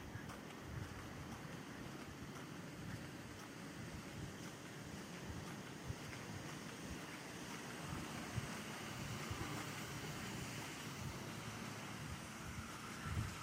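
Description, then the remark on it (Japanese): Sewer water rushes steadily beneath a manhole, a continuous hollow wash of flowing water with no breaks, even in loudness throughout, with no voices. “このマンマンホールからこう下水の音がするとそれをね、録音して、川の音、川の音っていうふうに言えないかなっていうふうに思ったりしますね。”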